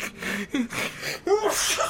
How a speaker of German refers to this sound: Gesundheit. Gesundheit. Oh, Gesundheit.